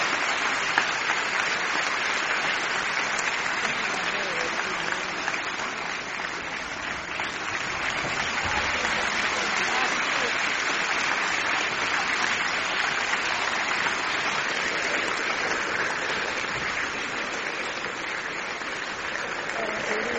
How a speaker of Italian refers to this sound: applausi a non finire.